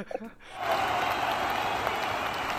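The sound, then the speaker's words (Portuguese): A brief vocal sound opens, then a round of applause for Geraldo Del Rey breaks out and carries on steadily, a dense, loud wash of clapping that fills the rest of the moment without fading. “Isso, uma salva, uma salva de palmas pro Geraldo Del Rey.”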